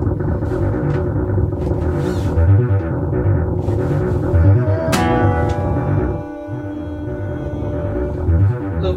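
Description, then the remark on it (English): A dense, droning wash of sound with heavy reverb smearing everything together; midway a sharp hit rings out into a long, shimmering tail before the low rumble settles back in. “reverb.”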